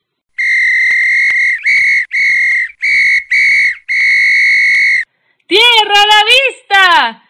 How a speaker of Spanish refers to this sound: sopló su silbato con todas sus fuerzas.